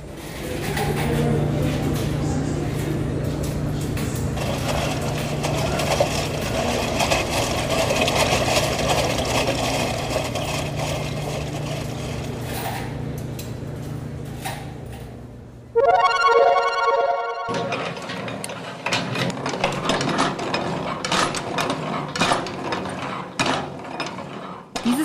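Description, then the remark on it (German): An 18th-century-style muscle-powered washing machine, a large wooden drum set spinning by hand with a lever, churns with a steady rumbling, creaking drone, then lets out a brief high squeak before rougher, clattering turning resumes. “Lärme war der Sound der ersten Waschmaschine aus dem 18. Jahrhundert.”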